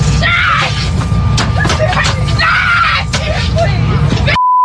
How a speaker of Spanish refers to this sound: una mujer se agarró como loca en un avión de pasajeros y empezó a gritar como loca